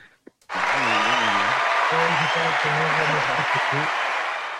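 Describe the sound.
Dense, steady applause starts abruptly and continues at full loudness for several seconds, with voices talking or cheering over the clapping.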